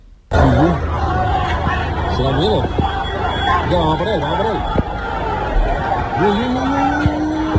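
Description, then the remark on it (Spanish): A chaotic street scuffle between rival German and Scottish football fans throwing chairs and parasols at a bar in the town centre: a dense crowd roars and shouts over one another, with sharp yells rising out of the din and a constant rumble of noise throughout. “Este era el sonido de algunos de esos enfrentamientos.”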